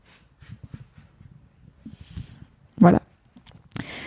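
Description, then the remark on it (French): A person blows a sharp puff of air at a cat, followed moments later by a longer breathy whoosh, with soft murmured talking before it. “Bah non, mais attendez, je vais souffler sur mon chat.”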